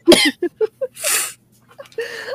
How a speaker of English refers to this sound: Cause triggers coughing fit. Um, I woke up and chose violence against a dying old man. I'm sorry.